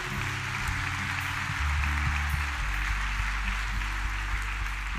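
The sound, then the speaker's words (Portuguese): An audience applauds the Lord steadily for several seconds, a dense, even wash of many hands clapping, with low sustained keyboard tones humming underneath. “Vamos dar uma salva de palmas ao Senhor.”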